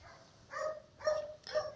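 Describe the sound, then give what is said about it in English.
A dog barks three times in a steady rhythm, each bark short and sharp, with brief pauses between them and no voices. “please this dog i don't know the dog have been quiet since so immediately i just pick up my phone to do this um this recording it just started and i can't stop it i don't know when it's going to stop backing”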